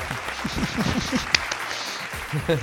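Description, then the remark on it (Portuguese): A round of applause for the city of Sorocaba fills the whole moment, a steady wash of many hands clapping, with voices calling and chattering underneath throughout. “Salva de palmas a Sorocaba!”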